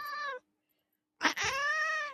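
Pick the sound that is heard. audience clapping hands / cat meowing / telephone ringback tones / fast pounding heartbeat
cat meowing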